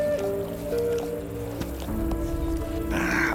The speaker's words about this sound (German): Er streckte die Hand aus und der Hund begann sie zu lecken.